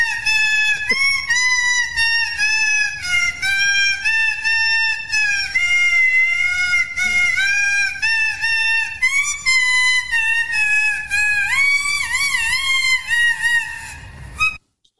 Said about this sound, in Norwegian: Vi kjører Tetti på en liten jingle her, da.